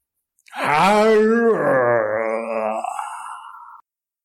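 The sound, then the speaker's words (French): A human voice imitates a lion, giving a loud, drawn-out roar that slides down into a long, moaning yawn. It is a single close vocalization lasting about three seconds, with no other sounds. “Le lion rugit, bâille et s'étire dans son palais.”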